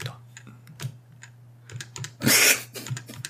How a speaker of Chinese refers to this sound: 你看那些一指禅，就德国有些很老的程序员，一指禅，然后修改文件名的时候要按按按那个后退键，按按上那么二三十次，你看他的时候，你就真的会替他着急啊！